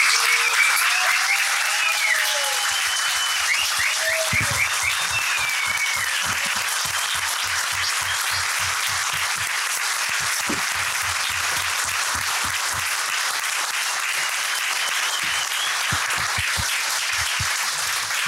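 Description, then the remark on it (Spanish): A large audience applauds the tyre workers steadily for about eighteen seconds, a dense wash of clapping that stays loud throughout, with a few faint whistles and cheers rising above it early on. “Compañeros, hasta la victoria siempre, sigamos luchando, viva el Partido Obrero, viva los trabajadores y bueno, un gran aplauso para todos los compañeros neumáticos.”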